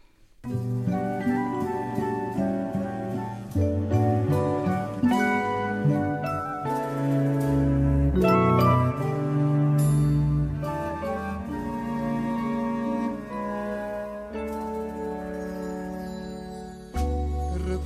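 A recorded folk song opens with plucked guitar and bright, ringing strummed chords, steady and close, with deep bass notes underneath and no voice yet.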